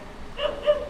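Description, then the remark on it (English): A dog gives two quick, high barks about a quarter second apart, outdoors on a city street, over a soft outdoor background hum with no voices. “Dogs are outside.”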